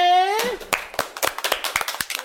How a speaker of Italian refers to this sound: Signori e signori, con un grande applausone...